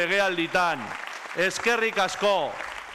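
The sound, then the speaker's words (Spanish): Loud, steady applause from gathered PNV party members fills the background while a man speaks clearly over it, his voice rising and falling above the continuous clapping. “Los militantes congregados en su carreta han secundado este reconocimiento con un fuerte aplauso.”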